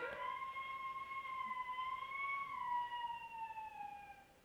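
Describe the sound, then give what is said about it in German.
A young girl lets out one long, drawn-out howl that wavers slightly in pitch, rising a little before sliding down at the end, with no talking around it. “Das war kein Geist und auch kein Wolf. Das war unsere Tochter, die jetzt mit dabei ist.”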